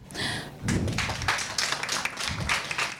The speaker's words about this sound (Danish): Det bliver en ting, vi klapper meget i dag.